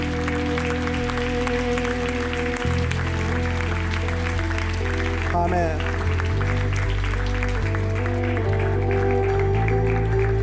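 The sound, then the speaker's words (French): An audience breaks into sustained applause as an acclamation to the Lord during a church service, a dense wash of clapping over steady sustained tones, while a voice speaks briefly amid the noise. “On peut donner une acclamation au Seigneur.”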